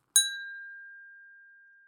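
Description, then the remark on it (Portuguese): A single bright clink of glasses in a toast, struck once and left to ring out in a clear, slowly fading tone, with no voices or other sounds. “Um brinde à cultura.”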